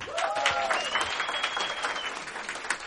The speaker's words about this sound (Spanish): Un aplauso fuerte para el grupo de invitado